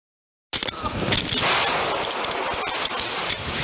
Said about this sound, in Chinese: 警察呢到现场救人的时阵，嫌犯小连续开了三枪，警察嘛遂开了七枪，分别拍到这个嫌犯的面啦，啊个肩胛头含骹。